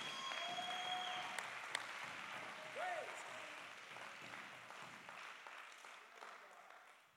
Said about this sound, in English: You ought to clap your hands, give God praise, give God worship right now.